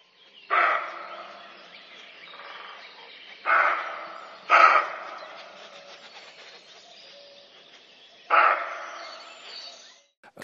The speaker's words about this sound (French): tu compares ces cris à ceux du chevreuil qui sont aussi très étrange, c'est-à-dire qui n'a jamais entendu un chevreuil. Je vais aussi les mettre dans cette émission pour que les gens voient à quoi ça ressemble.